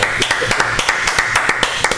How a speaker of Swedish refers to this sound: Tackar! Det är inte ofta man får applåder av göteborgare.